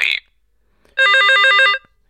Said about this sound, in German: Der Klingelton, da gibt es wohl Änderungen. Klingelton 1. Klingelton 2.